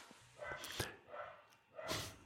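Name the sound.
corgi dog barking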